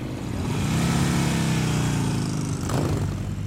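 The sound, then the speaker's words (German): Motorcycle engines rumble steadily and loudly at a season-opening motorcycle rally in Kulmbach, Upper Franconia, Germany, with tens of thousands of motorcycles around, a dense low drone of bikes idling and revving together, with one passing whoosh near the end and no voices. “Um mich herum zigtausende Motorräder und ihre Fahrer”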